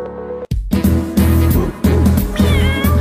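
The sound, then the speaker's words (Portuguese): Voices imitate a cat's meowing, a few drawn-out 'miau' calls sung over a loud, steady musical backing, with a brief drop out near the start. “Au, au, miau, miau, está no ar, pet papo animal”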